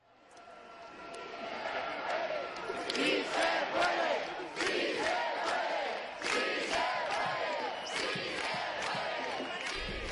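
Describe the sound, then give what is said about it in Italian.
A large street protest crowd of the Indignados movement demonstrating in Madrid, at Plaza del Sol, chants and shouts in rhythmic bursts, many voices blending into a dense, continuous roar with repeated rising cries over steady background noise. “Ieri è stata una grande manifestazione a Madrid.”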